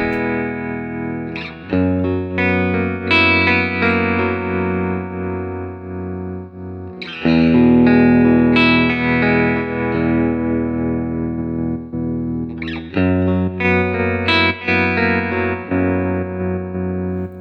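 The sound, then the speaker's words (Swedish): An electric guitar plays sustained, ringing chords through a swirling triangle-wave modulation effect using the same waveform on both sides, in three strummed phrases that each fade slightly. It is loud, with no talking. “Jag använder samma waveform då på båda sidorna nu. Det, eh, det är alltså den här triangelgrejen då så att mm.”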